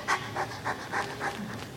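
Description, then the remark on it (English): A person imitates heavy, open-mouthed panting as after running really hard: quick, breathy huffs in a steady rhythm, about six in under two seconds, fairly loud with no words. “And you can think of this like if you're running really hard, afterwards you'll be like,”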